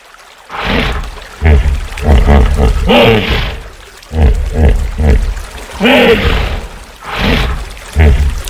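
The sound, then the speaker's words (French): A hippopotamus grunts and roars in a series of loud, deep, rumbling bursts, with short pauses between the calls and no voices. “Oh Regarde Des hippopotames”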